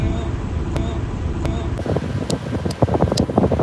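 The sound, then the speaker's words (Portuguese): Steady low rumble of wind buffeting a microphone throughout, with muffled voices and some brief clicks mixed in toward the end. “Se tá com vento, tá com muito vento ainda?”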